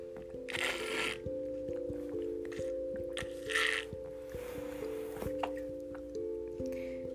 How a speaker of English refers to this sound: I make a lot of sound when I drink water, don't I?